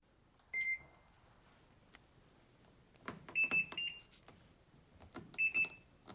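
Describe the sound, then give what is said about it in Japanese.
A home washing machine's control panel beeps as it is operated: a single electronic tone, then short groups of two or three slightly pitched beeps in a musical-scale pattern, with soft button clicks between them, fairly quiet. “野中さんの送っていただいた洗濯機の操作”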